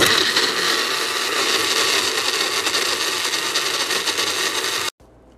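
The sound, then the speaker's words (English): A struggling, dying blender making a shake runs loud with a harsh, steady grinding whir for about five seconds, then cuts off abruptly into near silence. “Now, please listen to the sweet sound of our dying blender.”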